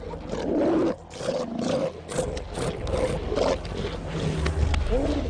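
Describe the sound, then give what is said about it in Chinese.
A dense, continuous chorus of thousands of roaring sea lions on a beach, many deep, rough bellows overlapping with throaty barks and groans, loud throughout with no clear pauses. “幼崽出生的第一周很关键，他和妈妈必须熟悉彼此的气味和声音，以便在数千头粗野的海狮当中找到彼此。”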